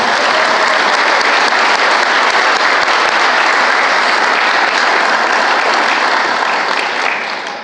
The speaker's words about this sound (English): So let's give a big round of applause for these three women right here.